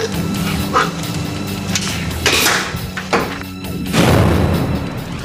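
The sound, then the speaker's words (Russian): Carbon crossbow bolts fired from 13 and 20 metres striking a vertically hung, ungutted pig carcass: a few sharp, heavy thuds a second or so apart, each a short punchy impact over a steady background rumble, with no voices. “Из арбалетов я произведу с дистанции 13 и 20 метров выстрелы карбоновыми арбалетными стрелами”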